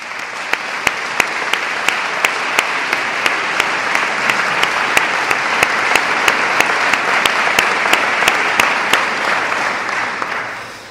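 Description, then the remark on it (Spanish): Sustained applause from an audience at a pregón, dedicated to the memory of the poet José Antonio Garmendia, a dense wash of many hands clapping with sharp individual claps standing out, steady and loud for about ten seconds before tapering off at the end. “José Antonio Garmendia, poeta que buscaba a Dios cada martes santo, les pido que a su memoria le dediquemos un aplauso.”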